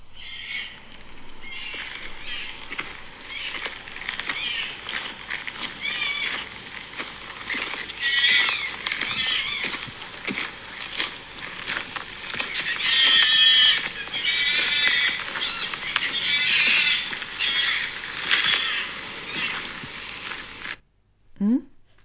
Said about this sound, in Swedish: Men alltså, eh, var det räven som skrek? Ja! Vad gjorde den? Hängde den i någon rävsax eller? Nej.